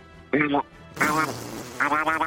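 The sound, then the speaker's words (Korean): A person imitates a duck with three nasal, buzzy quacks: one short honk, then a longer drawn-out one, and a final quick double quack, fairly loud. “오리 소리 한번 해보겠습니다.”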